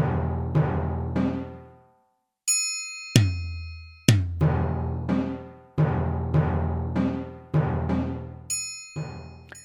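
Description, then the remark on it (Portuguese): A run of synthesized drum hits from a music lab sound emulator, in a loose, uneven rhythm, each with a sharp attack and ringing decay, mixed with a few bright metallic strikes and one short pause, no voices. “vou botar alguns aqui, por exemplo, dá para você ouvir, experimentar sons de bateria.”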